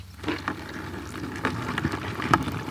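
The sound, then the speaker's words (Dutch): Underwater, a crayfish strikes at the microphone with its claw: a handful of sharp clicks and knocks at irregular intervals over a steady crackling, fizzy background, with no voices. “Ah, hij slaat er naar nou met zijn schaar.”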